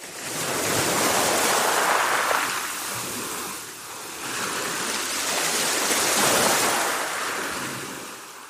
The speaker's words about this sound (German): Allmählich werden die Pausen in unseren Gesprächen immer länger, und so lausche ich dem seit Urzeiten immer gleichen Gesang des über den Sandstrand rollenden Meeres.